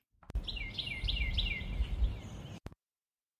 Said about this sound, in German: es ist untertags und hinter mir zwitschern die Vögel. Ich habe wohl eh schon alle Fenster zu, aber das sind die Störgeräusche. Es ist nur der Sommer bzw. der Frühling, der da ähm, äh, sich laut macht.